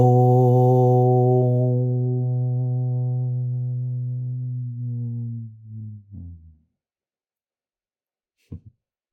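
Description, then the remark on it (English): A single voice sings one long, steady low tone; its brightness fades as the mouth closes, turning it into a soft hum that wavers and stops, then a short faint sound after silence. “So you could even try making the sound but embodying this aspect and actually, as you make the sound, close your mouth to symbolize the flower closing.”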